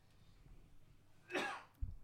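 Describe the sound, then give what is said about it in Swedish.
A single sharp cough bursts out after a quiet stretch, fairly loud, followed by a brief low thump; no one speaks. “Prosit, host.”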